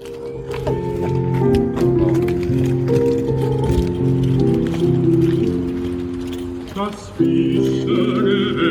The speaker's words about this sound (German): Und jetzt versuchen wir prozessionsartig zu, wirklich zu dieser Stelle zu marschieren, wo früher mal das Wasser gewesen sein soll.